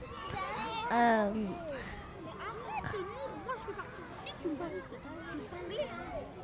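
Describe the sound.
Children playing and shouting, including a girl, with high, bright cries rising and falling over a steady babble of young voices, loudest near the start and continuing throughout.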